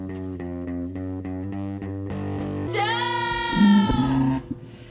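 A song plays on Radio Nova with no talking, opening on a steady pulsing rhythm of repeated notes before bursting into a louder, dense, distorted section with bright sustained tones.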